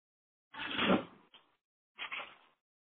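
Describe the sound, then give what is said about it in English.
Drawers sliding and knocking shut, two rattling bursts about a second apart with a small click between them, clear with no one talking. “I hear somebody uh, closing drawers or doing some dishes or whatever you're doing.”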